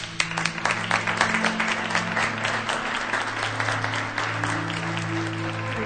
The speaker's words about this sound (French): Nous devrions maintenant honorer Davus, qui a bien mérité qu'on l'applaudisse.